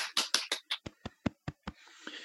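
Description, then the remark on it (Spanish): Light applause for the teachers, about ten sharp claps in a quick, fairly steady rhythm, fading into a soft hiss at the end. “Entonces, aplausito a nosotros.”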